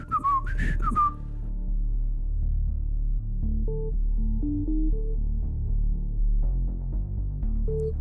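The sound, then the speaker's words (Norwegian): Someone whistles a melody while skipping along a hallway toward a stage: a short bright phrase at first and then a steady series of stepped notes over a low, constant hum. No talking. “lukket garderobedøren bak seg og skippet plystrende bortover gangen mot scene to.”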